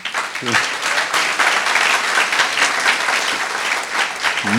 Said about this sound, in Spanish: Que Dios los bendiga con todo mi corazón. Otro aplauso al Señor, ¿no?